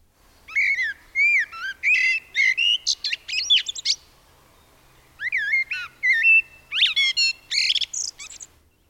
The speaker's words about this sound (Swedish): ja, men nu vill jag eh, höra den. Eh, nu vill jag, höra den. Mm. Här mm. kommer koltrasten.